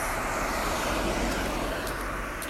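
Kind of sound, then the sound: vehicle, two cars passing by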